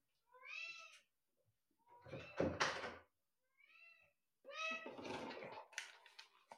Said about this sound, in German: Ich glaube, es ist die erste Aufnahme mit Katze im Raum jetzt. Ja. Kann das sein?